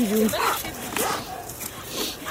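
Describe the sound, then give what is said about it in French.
A dog whimpers and lets out high, wavering yips over about two seconds as it settles between a person's legs to feel safe, with people's voices murmuring in the background. “Le chien vient se mettre... Euh, se, il se sent en sécurité entre toutes tes jambes pour pouvoir se protéger.”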